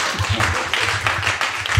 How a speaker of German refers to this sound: Der Applaus für euch selber.